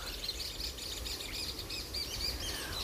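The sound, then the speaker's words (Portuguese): Several great kiskadee calls chatter back and forth all around, bright and repeated, set against a constant rushing wash of water noise, with sea waves breaking in the background; no one speaks. “Os bentivis estão conversando ao meu redor.”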